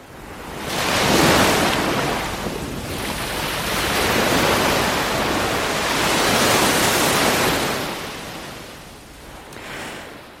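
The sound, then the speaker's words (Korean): Ocean waves roll in and wash out in broad, hissing surges, swelling and fading in slow cycles of a few seconds each, with no voices present. “시원하고 청량한 바다 소리를 두 가지 버전으로 들려드릴 텐데요.”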